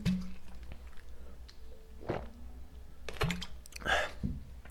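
Someone takes a sip of water: soft wet mouth clicks, a couple of gulping swallows and a brief rustle of the cup or bottle, with no talking.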